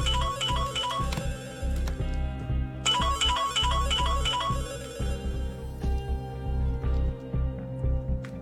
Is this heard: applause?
no